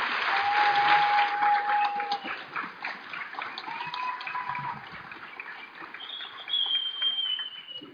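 Steady audience applause, a dense wash of many hands clapping that swells loudest in the first seconds and continues without pause, with a few thin whistles rising above it.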